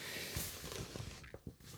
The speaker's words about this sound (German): Sorry, dass ihr das Blättern vielleicht gerade so ein bisschen hört hier, weil ich habe die im ausgedruckten Format.